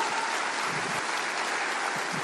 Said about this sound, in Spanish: Denle un aplauso bien fuerte al Señor.